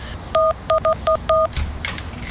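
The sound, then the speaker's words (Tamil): Five short, clear electronic keypad beeps tapped out at an uneven pace as an eight-digit door code is entered to get into a house, followed by a brief burst of rattling, scuffing noise. “நான் உன் ஃபோனுக்கு மெசேஜ் அனுப்பியிருக்கேன் பாரு அந்த எயிட் டிஜிட் நம்பரை போட்டு உள்ள போயிரு”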